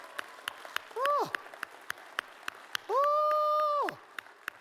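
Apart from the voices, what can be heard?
hand clapping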